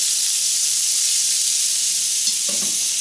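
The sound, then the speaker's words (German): Steady sizzling of meat searing in a hot pan while being turned with roasting tongs, a bright continuous crackle and hiss, with a brief soft clatter near the end and no talking. “Also ich hoffe, ihr hört das Brutzeln”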